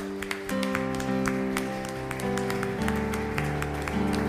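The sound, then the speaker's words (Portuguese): Scattered clapping to the Lord rings out over sustained organ-like chords that shift a few times, with sharp claps landing in a loose, steady rhythm, moderately loud throughout. “Aleluia, aplauda ao Senhor.”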